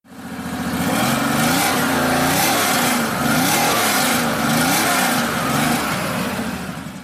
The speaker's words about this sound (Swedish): Den gick otroligt fint och den hade ett fantastiskt varvvilligt ljud. Lyssna här. En Porsche 911 T, dubbla förgasare, från en inspelning i garaget när jag varvar den.